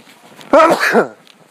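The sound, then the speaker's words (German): A single loud sneeze bursts out abruptly with a short voiced, throaty quality, lasting about half a second, with quiet on either side and no talking, recorded while on the move. “Hier ist noch ein Nieser.”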